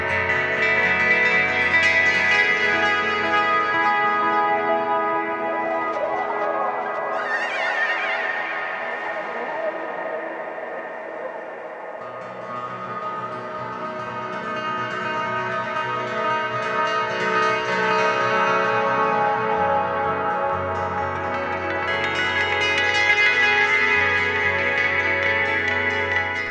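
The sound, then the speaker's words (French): A solo guitarist on stage plays through looping echo effects, playing over his own echo and building dense, sustained layers of ringing tones, with a swooping pitch glide early on and a steady drone throughout, loud and unbroken with no voices. “En fait, il joue sur son propre écho.”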